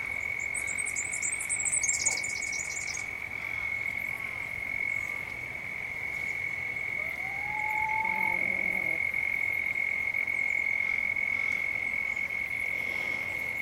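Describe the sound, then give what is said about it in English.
A steady, continuous insect drone holds across a backyard on Gunai Kurnai country in Gippsland, with brief high chirping bursts early on and a short rising call midway, all at moderate level without any voices. “You can hear the birds in the background and the insects, maybe some traffic, and hopefully the chooks.”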